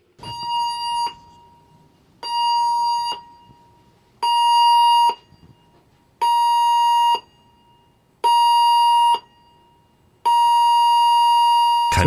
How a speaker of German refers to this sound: Ja, das ist die Gewichtswaage, die, die Alarmsignale auf, ja. Aber keine Panik, wenn Sie eben schon erschrocken sind.